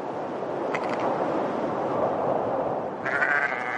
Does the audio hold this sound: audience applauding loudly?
no